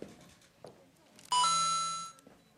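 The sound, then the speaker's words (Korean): A coin is inserted and a bright electronic chime rings out for under a second, starting the song accompaniment: a bell-like tone rich in high overtones that fades gradually, following a few soft clicks and thumps. “그러면은 동전을 넣으면 반주가 시작됩니다.”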